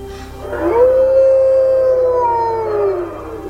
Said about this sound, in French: À l'orée de la forêt, un prédateur légendaire les observe. Le loup gris.